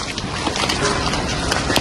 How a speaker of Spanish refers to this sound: Increíble. Esto o sea, cada, clac clac es un, eh, es un, es un granizo.